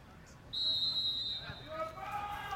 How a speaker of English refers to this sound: We're just waiting for the referee to, to blow the whistle any moment now, dear listeners.